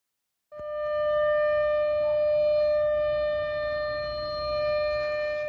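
A civil defense air raid warning siren, sounded at 2 p.m. for a nationwide civil defense air raid drill, starts abruptly after a short silence and holds a loud, steady, buzzy wail like an outdoor warning siren.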